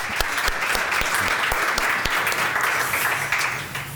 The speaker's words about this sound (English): Big applause for you too.